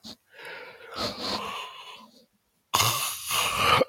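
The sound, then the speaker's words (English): A drawn-out yawn with long, breathy exhales, a short pause, then a second loud airy breath. No talking. “Y'all see I'm yawning already.”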